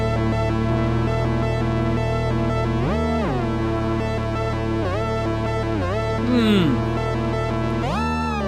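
An Oberheim TVS Pro, a two-voice analog synthesizer based on two SEM engines, plays a demo of thick, buzzy sustained tones, with several pitch dips and a gliding filter sweep, loud and steady throughout with no talking.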